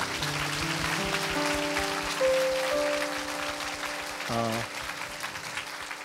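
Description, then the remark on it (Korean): A church audience claps steadily and densely for about six seconds in thanks to the worship team while sustained keyboard chords hold underneath; a brief voice cuts in near the end as the applause continues. “악기를 가지고 또 하나님을 찬양했던 우리 또 목소리를 가지고 함께 찬양하고 하나님 앞에 영광 돌리 우리 유피티에게 감사의 박수 한번 크게 드릴까요?”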